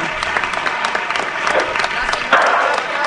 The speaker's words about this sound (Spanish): Están ahí, reciben el aplauso del público.